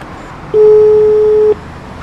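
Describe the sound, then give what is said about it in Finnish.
A single steady electronic buzz sounds for about a second, loud, like an intercom door buzzer, over a low rumble of street traffic: the doorbell of the Turku Music Festival office by the Turku concert hall on Aninkaistenmäki, near central Turku. “Soitetaan sovikelloa.”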